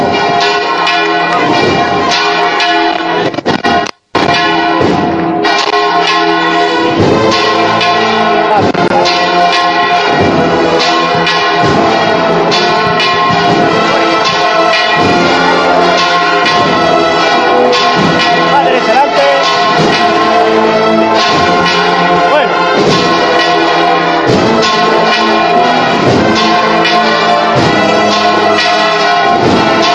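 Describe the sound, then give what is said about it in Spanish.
Church bells peal loudly and continuously at half past ten in the morning during a procession of the Risen Lord, their dense overlapping ringing filling the whole stretch, broken only by a brief cut near the start. “coincidiendo con el repicaz de las campanas cuando son las diez y media de la mañana.”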